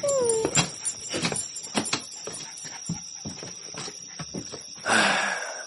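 A puppy gives a short high whine, then a sharp yelping bark near the end, with a series of soft clopping knocks in between. No one speaks.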